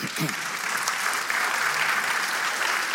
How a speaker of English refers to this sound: Don't clap that much.